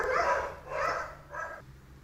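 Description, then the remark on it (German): Dogs bark in three drawn-out bursts at moderate loudness, with short pauses between them and no talking. “jetzt weiß ich nicht, ob man die Hunde gerade hört.”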